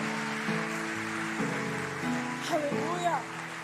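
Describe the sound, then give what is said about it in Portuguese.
A church audience applauds the Lord in a dense, steady wash of clapping that never lets up, with sustained musical chords shifting underneath and a brief swooping, melodic voice near the end. “Aplauda o Senhor mais forte porque ele é digno.”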